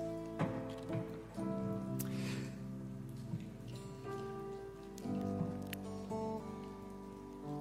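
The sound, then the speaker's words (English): Many prepackaged plastic communion cups, each with a wafer layer and a juice layer, being peeled open at once during a church communion service make a scattered, crackly patter of small pops, like light rain, over a steady murmuring background of voices. “Sounds like firecrackers going pop, pop, pop, pop, pop. It's like bubble wrap popping everywhere.”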